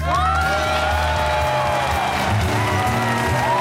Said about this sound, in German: Ja, also ein Applaus in dem Fall für euch.